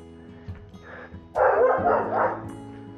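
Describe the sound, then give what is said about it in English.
A dog from La Casita, let out early in the morning, barks loudly, a quick cluster of sharp barks in the middle, preceded by a fainter yip and trailing off into quiet background. “Let's not keep him barking.”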